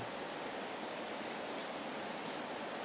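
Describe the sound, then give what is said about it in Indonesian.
Steady rain falling, a dense, even hiss of countless drops with no pauses or changes in strength throughout. No voices are heard. “Mudah-mudahan kita mendapatkan hujan yang berkah.”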